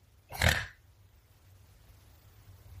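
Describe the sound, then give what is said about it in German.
A single short, snorting pig oink, loud and rough for about half a second, followed by quiet with only a faint low hum. “War das jetzt nochmal wegen dem Schweinchen?”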